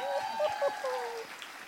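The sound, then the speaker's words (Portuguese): An audience applauds in the morning for the women present, with a steady wash of clapping at moderate volume, mixed with a faint tonal hum or voices in the background. “Um aplauso para nós mulheres nessa manhã.”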